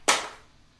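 A single sharp slap as a small cigarette pack, knocked off a table by a cat, hits the floor, a brief crisp impact that fades within a fraction of a second, with no voices.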